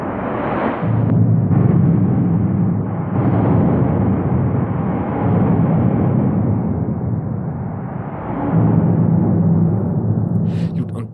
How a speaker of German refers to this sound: Ich habe natürlich vergessen, ein Foto zu machen, aber ich habe euch das Geräusch mitgebracht. Wenn Autos über diese Brücke drüber fahren, das klingt so, hört euch das mal an, das ist total geil.